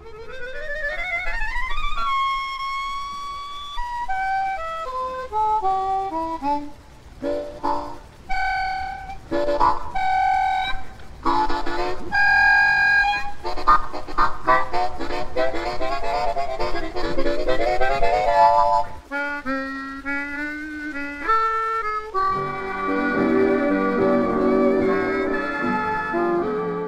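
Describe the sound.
A recorded harmonica passage from the film The Sidewalks of London: reedy melodic lines with sliding bends, quick trills and chordal bursts, played steadily and fairly loud, with a brief pause before a busier, warbling passage.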